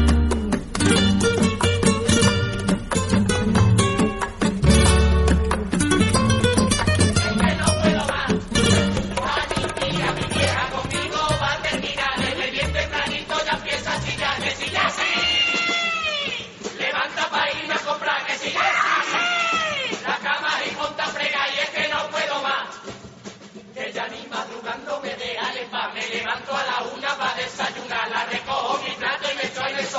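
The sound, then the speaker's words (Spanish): A carnival murga group of young people from Olivenza, Los Cambayotas, sings loudly in chorus over steady drums, many voices blending; midway the percussion drops away and the singers carry on with swooping, sliding vocal lines. “De fondo suenan los cambayotas, esta murga oliventina de gente joven que vienen con ganas de comerse el López cada año y casi casi que lo consiguen.”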